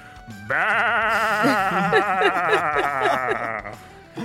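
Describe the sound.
A person imitates a billy goat with one long, loud, resonant bleat of about three seconds, wavering and quavering throughout, alone.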